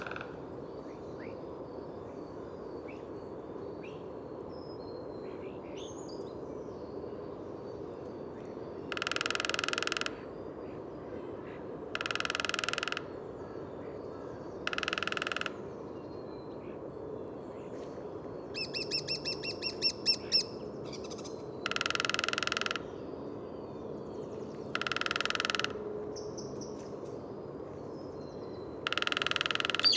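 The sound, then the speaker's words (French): A lesser spotted woodpecker drums in a forest in five short, rattling rolls spaced a few seconds apart, with a quick series of high, thin call notes between them over a quiet outdoor background. “quand le pic et pêchette commence à tambouriner, là on peut dire que le printemps n'est pas loin.”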